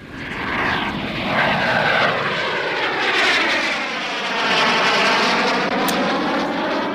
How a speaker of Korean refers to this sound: 네. 비행기만 봐도 기내식 먹고 싶더라고요, 요즘에. 비행기 소리입니다. 오늘 보물 소리예요.